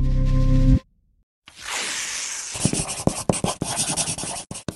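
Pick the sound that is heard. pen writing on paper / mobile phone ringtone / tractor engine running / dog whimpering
pen writing on paper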